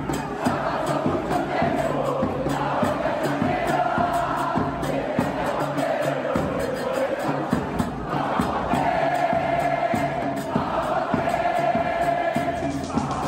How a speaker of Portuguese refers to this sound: isso é uma torcida de basquete. É não existe, é, não é um time de futebol que tem também, é só basquete.